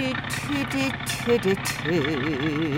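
A truck engine is suddenly started by someone who has climbed into the truck, then rumbles at a steady idle, with shifting tonal sounds riding over the low drone before settling into a wavering, pulsing hum.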